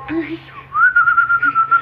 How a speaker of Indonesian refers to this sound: kok tiba-tiba keluar ilmu-ilmu anginmu yang pakai siulan kok ya.